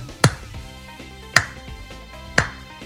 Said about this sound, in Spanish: Y el aplauso es el aplauso de Rocky 4 porque es el aplauso que arranca tímido.